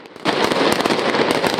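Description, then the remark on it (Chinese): Firecrackers are lit in a square during the Fallas festival in Valencia, Spain, bursting into a dense, continuous crackle of rapid sharp pops after a brief quiet moment as red flames shoot up, loud and bright throughout with no voices. “爆竹点燃，通红烈焰窜出广场中，烧成大火炬。”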